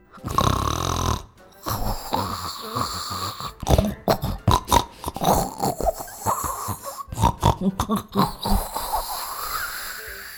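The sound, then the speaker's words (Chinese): A voice imitates a big bear snoring inside a house: a long, rumbling drawn-out snore, then a string of choppy, snorting bursts in an uneven rhythm, fairly loud and with no other talk. “接着，屋里传出打呼的声音。”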